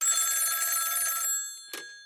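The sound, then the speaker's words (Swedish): A telephone rings with a bright, trilling bell tone for about a second as an outgoing call is placed, then stops and a short click follows. The sound is clear, with no talking. “Ja, men vi ringer upp.”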